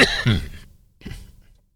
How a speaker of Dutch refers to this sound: Even hoesten.